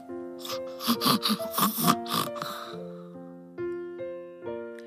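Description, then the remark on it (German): A small child asleep in a cot in a dark children's bedroom late in the evening gives a quick run of small, snuffly snores and snorts, fairly loud, lasting a couple of seconds before soft, steady musical tones take over. “Ab und zu hörte man einen kleinen Seufzer. Seufzer. Oder Schnarcher.”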